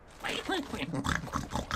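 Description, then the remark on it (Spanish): A human voice imitates a pig, producing a quick run of nasal oinks and grunts, fairly loud, with no other sounds around it. “Cerdo.”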